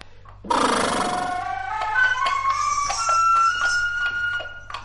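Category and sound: flute being played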